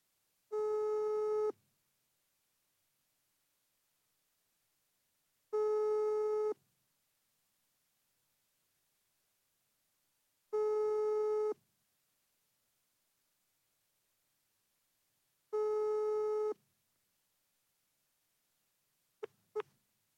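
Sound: telephone ringing tone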